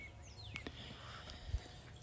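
Faint birds calling outdoors on a morning in central Texas, including doves cooing, with a few thin, high chirps and sweeping whistles scattered over a low, steady background hum and a soft thump near the end.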